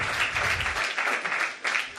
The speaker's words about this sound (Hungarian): Mi lenne, ha adnánk még egy utolsó nagy újongó tapsot az Úrnak? Azért a munkáért, amit elvégzett ezeknek az embereknek az életében.